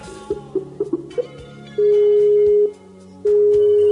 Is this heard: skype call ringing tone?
yes